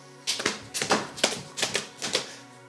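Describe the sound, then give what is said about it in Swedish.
A person imitates the hooves of a horse galloping past with quick clicking taps in a steady three-beat rhythm, repeating about five times with no talking. “Att hästen liksom kom galopperande och eh, red förbi mig.”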